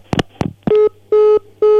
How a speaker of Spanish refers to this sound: Se cortó, parece. El teléfono, nuestro teléfono.